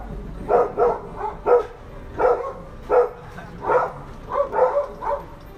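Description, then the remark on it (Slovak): Several stray dogs in Valparaíso howl together in a run of short, yelping calls, about nine bursts in quick irregular succession, fairly close and moderately loud over a faint background hum, with no talking, recorded while people were eating lunch near them. “Aj sme to nahrali, ako a sme si užívali obed a pri nás títo diví psi a svorne zavíjali.”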